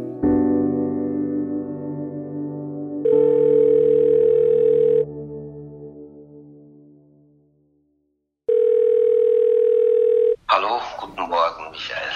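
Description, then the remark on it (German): A telephone dialing tone sounds twice, each a steady mid-pitched buzzy tone lasting about two seconds with a pause between, over a fading musical chord, as Tonhalle Düsseldorf director Michael Becker phones Adam Fischer, principal conductor of the Düsseldorf Symphony Orchestra, before a voice begins speaking. “Für eine gute Viertelstunde telefoniert Intendant Michael Becker mit Adam Fischer, dem Principal Conductor der Düsseldorfer Symphoniker.”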